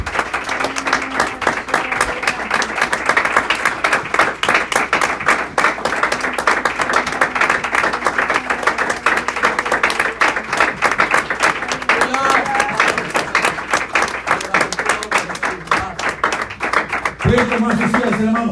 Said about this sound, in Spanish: Le damos un aplauso al Señor de la Gloria.